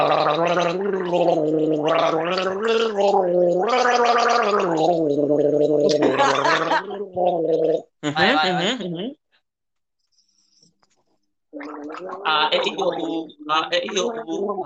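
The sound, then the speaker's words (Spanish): Gurgling, bubbly gargling in a bathroom with a wavering voiced pitch runs for about nine seconds, stops for a short silence, then resumes in shorter, throatier bursts. “Y ahora me voy al baño a hacer gárgaras.”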